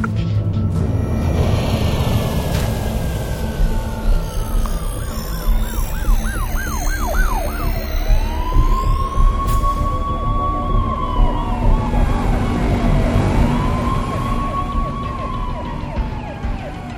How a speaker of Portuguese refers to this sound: vocês ouvem ao fundo e até veem nas alturas da cidade carros de polícia convergindo para os acessos da cidade alta. Parece que todas as unidades foram chamadas para serem brifadas do caos que aconteceu.